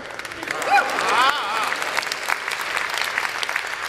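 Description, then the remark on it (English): An audience claps steadily, a dense wash of many hands that fills all four seconds, with a couple of brief voices whooping or cheering near the start. “Wonder Woman spent her entire life, y'all can clap.”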